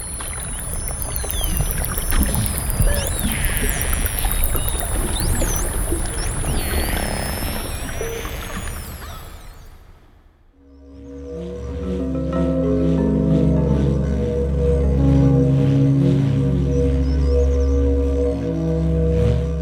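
Underwater dolphin sounds: high, sweeping whistles over a dense crackle of clicks, then a shift to lower, droning tonal calls with a hollow, watery background. No voices.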